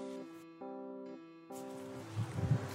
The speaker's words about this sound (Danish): Det blæser lidt i dag. Jeg står herude på en stille villavej